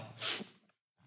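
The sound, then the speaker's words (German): A single loud sneeze bursts out with a breathy hiss, then a brief silence before a faint sniff or breath. “Ähm, Gesundheit.”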